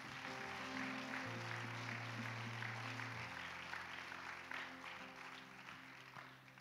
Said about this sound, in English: Come on, let's give those wonderful people a big hand clap.